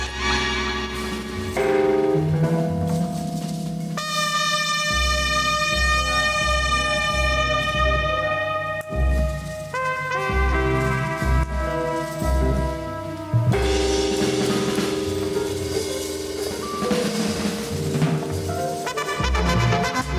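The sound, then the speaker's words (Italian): A loud trumpet blares long sustained notes over a full band, its tone washed in echo and reverb and shifting between left and right channels, with a steady rhythm section underneath. “Questi sono gli effetti di eco e di riverbero di cui vi parlavo prima, se voi ascoltate sentite la tromba saltare da un canale all'altro, soprattutto se siete in cuffia sentite proprio questo panning si chiama, spostamento da un canale all'altro.”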